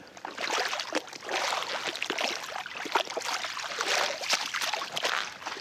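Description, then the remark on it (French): Footsteps splash steadily through large puddles of rainwater on a road, each step a wet slosh blending into a continuous watery churn with no one speaking. “Putain, je marche dans des flaques énormes.”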